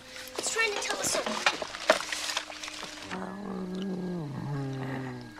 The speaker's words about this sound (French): J'adore les petits grognements de E.T. Ah oui, génial. oui c'est il, a pris des, sons de chat. des petits de chat.